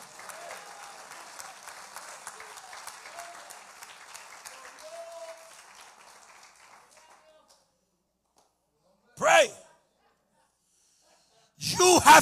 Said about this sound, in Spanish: Ese aplauso tiene artritis, déselo con fuerza, por favor.